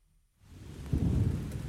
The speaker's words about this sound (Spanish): Empieza así, suavecito, como con lluvia.